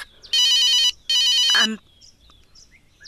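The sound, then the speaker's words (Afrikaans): A telephone rings twice in quick succession, each trill loud and bright, then it stops, leaving quiet with a few faint chirps in the background. “die foon, ma?”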